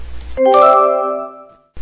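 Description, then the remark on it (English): A doorbell chimes with two quick ringing tones, a ding-dong whose bright, bell-like notes linger and slowly fade for about a second before cutting off. “Nobody makes cookies like Grandma, said Mom as the doorbell rang.”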